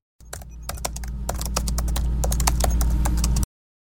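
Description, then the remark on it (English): Rapid, irregular clicking of keys on a computer keyboard, fairly loud, with a steady low hum underneath and no voices. “You know how I feel about typing.”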